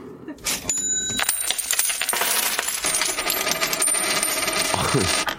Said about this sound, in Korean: 동전 너무, 너무 굴렸다. 지금 귀가 막 쩌렁쩌렁하네.